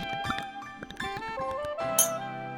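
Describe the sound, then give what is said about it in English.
Wine glasses of sparkling white wine clink together in a bright series of ringing taps, with sustained glassy tones lingering between strikes and one louder, sharper clink near the end. “Can I interest you in some wine, good sir?”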